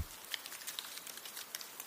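Melting snow and icicles fall from trees as the sun warms a winter landscape, dripping and pattering in a soft, irregular scatter of small ticks, with occasional slightly sharper taps, quiet, with no voices present.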